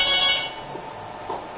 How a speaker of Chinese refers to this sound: 二零一九年三月十八日上午十一点三十分，湖北省潜江市公安局杨市派出所响起了急促的电话铃声。